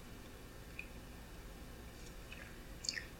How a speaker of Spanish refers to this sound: yo tengo el cafecito servido, así que me voy a dar el primer sorbito del día. Eso sí, amargo para despertarme informativamente falta que me hace ya tan avanzada la semana. Voy con este sorbito.